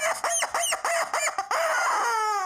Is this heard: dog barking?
no